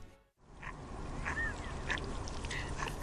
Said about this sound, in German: Na gut, ich habe meine Enten hier gefüttert. Alle sieben waren da, alle sieben sind satt geworden.